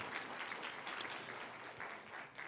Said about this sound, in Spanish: Dame un aplauso a los, a, los, que están ahí arriba en el sonido porque está precioso. es un aplauso fuerte, Señor. Lo pusieron perfecto.